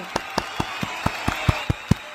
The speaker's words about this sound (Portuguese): Eu Exato, queria dar uma exatamente. salva de palmas é. pro meu editor.